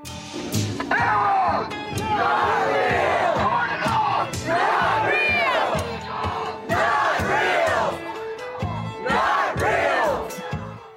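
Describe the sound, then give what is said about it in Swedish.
A crowd of demonstrators outside Twitter's headquarters shouts loudly in repeated, chant-like bursts every second or two, many raised voices overlapping with strained, high-pitched yells rising above the mass. “så nu är de utanför Twitters högkvarter och, och demonstrerar”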